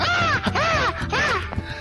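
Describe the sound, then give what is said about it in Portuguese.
Three harsh, rising-and-falling crow caws in quick succession, loud, over a low background rumble with no talking, as a crow swoops in, hits someone on the head and flies off. “um corvo vem e bate na sua cabeça, Nini, e sai voando.”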